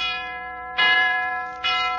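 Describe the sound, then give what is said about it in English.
A large bell tolls loudly at midnight, struck twice in slow, even succession, each clang ringing on over the hum of the previous stroke. No voices are heard. “I'm up to the bell, and it's midnight.”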